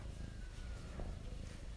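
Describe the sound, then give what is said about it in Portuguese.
A steady, low rumbling purr from a female cat right up against the microphone, continuous and fairly quiet, with no talking. “É, a minha gata tem fio na cara aqui na minha.”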